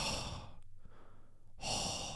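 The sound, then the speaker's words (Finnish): A voice imitates heavy panting, with two loud, breathy gusts of air separated by a brief quiet pause. “Huohottaminen, ja ei liikunnan jälkeen, vaan ihan silleen peruselämässä, että oot sellainen hönkiä – ja se on kyllä, mäkin on sellaisten niin kuin pienten äänten vihaaja, että jos joku jatkuvasti hönkii silleen”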